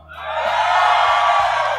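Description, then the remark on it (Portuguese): An audience casting a vote erupts in loud shouting and cheering, a dense roar of many voices that swells in quickly and holds steady for about two seconds. “É menos gente gritando mais alto.”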